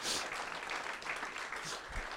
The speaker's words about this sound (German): Amen. Genau, geben wir Jesus einen Applaus.